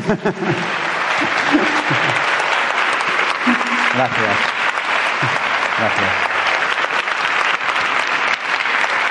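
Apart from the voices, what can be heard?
audience applause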